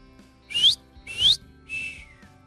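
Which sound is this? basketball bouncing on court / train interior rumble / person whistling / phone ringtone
person whistling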